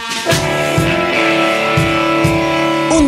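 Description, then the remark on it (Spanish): A war drums sound effect introducing the Mayapedia segment on La Tijuanense Radio: deep drums thud in a slow, uneven rhythm, about five heavy beats, beneath a loud sustained brassy drone that swells steadily throughout, with no voices. “Suenan los tambores de guerra para la siguiente Mayapedia.”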